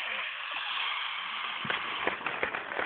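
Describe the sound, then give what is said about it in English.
A crowd cheers in a steady, dense roar, with sharp bursts of clapping breaking through more often toward the end. “I have as a little excerpt here to kind of introduce him to the crowd going wild.”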